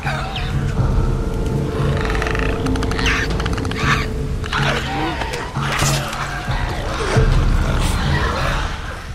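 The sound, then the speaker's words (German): A video game zombie known as a clicker growls and snarls in rough, guttural bursts, broken by rapid throaty clicking rattles, loud for several seconds. “Besonders bei den sogenannten Klickern läuft es mir immer wieder kalt den Rücken runter.”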